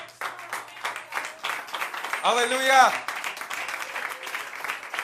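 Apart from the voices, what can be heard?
audience clapping hands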